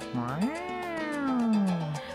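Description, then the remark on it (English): A single long, drawn-out meow from Eliza, a cat high on brand new catnip, in a studio, rising then slowly falling in pitch, fairly loud, with a few faint clicks in the background and no talking. “This week's episode of Not a Couple was recorded in front of a live studio audience of one cat.”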